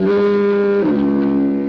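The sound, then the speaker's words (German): A doorbell rings with a loud, sustained two-tone chime, the first tone stepping down to a lower second tone that rings on. No one speaks. “oh, das ist, das ist die Türklingel, ne?”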